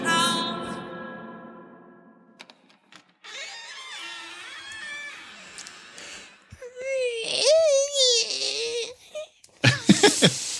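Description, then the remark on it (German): A processed creaking-door effect, drawn out and drenched in reverb, its whining tone sliding up and down in pitch across several passes before ending in a short, harsh burst. “So habe ich die Tür gemacht. Und dann mit Hall unterlegt und hochgepitcht und runtergepitcht und wieder hoch yeah.”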